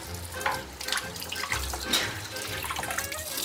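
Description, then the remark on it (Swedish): Water runs steadily from a kitchen tap for a few seconds, a hissing splash with small bursts as the flow hits the sink, no voices over it. “En och en halv åtsked vatten.”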